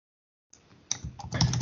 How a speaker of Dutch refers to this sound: Ehm, ik zal hem even typen voor je.